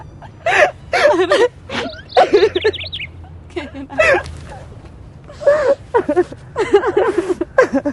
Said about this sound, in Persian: گریه نکن میدونی وقتی گریه میکنی خیلی خوشگل میشی